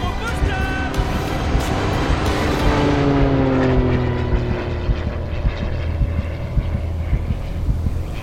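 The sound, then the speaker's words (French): A propeller airplane flown by Antoine de Saint-Exupéry, crisscrossing the sky searching for a lost pilot, drones overhead, its engine tone sliding steadily downward as it passes and recedes, with steady wind noise buffeting underneath throughout. “Son ami, Antoine de Saint-Exupéry, alerté de son retard, sillonne le ciel pour tenter de le retrouver.”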